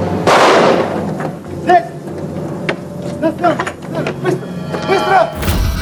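One sharp, loud gunshot, a single shot at the theatre complex on Dubrovka, Russia, during a hostage-taking, bursts out near the start and rings away, followed by indistinct voices and a murmur of commotion.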